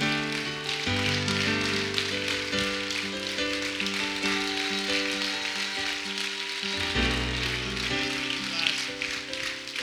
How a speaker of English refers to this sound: Give the Lord a clap.